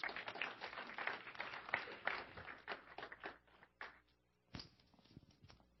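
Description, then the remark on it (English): A warm round of applause from a group welcoming three guests invited up to share one morning, dense steady clapping for a few seconds that thins out and fades, ending in a few scattered claps. “We give them a round, warm round of applause.”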